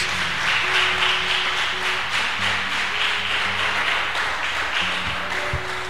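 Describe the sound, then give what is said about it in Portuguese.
An audience applauding: dense, steady clapping from many hands holds for the whole stretch at an even, fairly loud level, with soft sustained low musical tones underneath. “Você pode aplaudir ao Senhor em nome de Jesus.”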